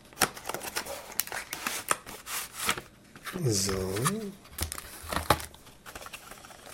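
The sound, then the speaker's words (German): Crinkly rustling and scraping of a keyboard's packaging (a slip of paper, some paper and a plastic tray) being handled, with repeated short crackles and rubs; a man briefly speaks a single word in the middle. “Da kommt raus ein Zettel, ein bisschen Papier und dann so eine Plastikschale.”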